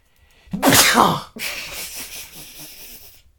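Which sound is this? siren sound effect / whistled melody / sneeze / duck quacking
sneeze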